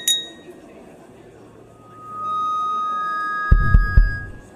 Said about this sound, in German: Die Musik wird leise gedreht. Sie möchte offensichtlich etwas verkünden und tippt mit einem Löffel an ihr Sektglas.